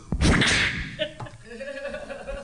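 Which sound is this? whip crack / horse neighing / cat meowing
whip crack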